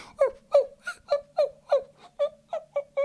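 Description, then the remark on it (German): A person imitates the whimper of their dog Paul dreaming in its sleep: about ten short, high-pitched, nasal whines repeated in a quick, steady rhythm, each rising briefly and then dropping off. “Ich kenne das nur von Paul, also von meinem Hund, der dann auch manchmal so im Schlaf so”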